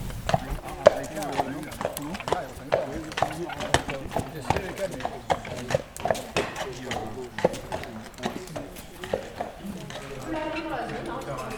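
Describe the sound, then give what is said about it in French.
Heavy hooves of draft horses clop steadily as the horses are asked to walk, at an unhurried walking pace, a regular thudding rhythm running throughout with people talking over it. “on leur demande de marcher on va faire que du pas aujourd'hui.”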